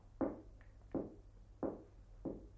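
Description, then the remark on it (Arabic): Four slow, evenly spaced knocks on the wooden street door of Shakespeare's house, each a dull, resonant thud with no voices, over a faint low hum. “ثم يسمع طرقا على باب الشارع”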